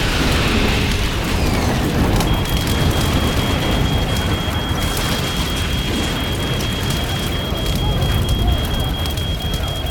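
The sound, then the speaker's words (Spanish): A deafening, continuous roar of an airplane crashing into an office tower in a city, dense with crackling, splintering debris, and a thin high-pitched whine sets in after a couple of seconds and persists throughout. “El impacto sobre la torre suena como un rugido ensordecedor para los empleados que no han sido alcanzados por el avión o los escombros.”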